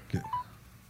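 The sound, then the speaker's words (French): A couple of short electronic telephone dialing tones sound quickly one after another, thin as if through a phone on speakerphone, with a soft thump at the start. “je vais essayer avec mon téléphone. tu le mets sur speaker?”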